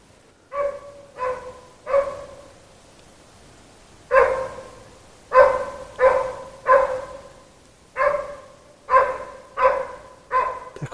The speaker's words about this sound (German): Ja, hier haben wir wieder einen Hund, mhm, der genau. unterwegs ist. Aha, also, wir hören es gerade.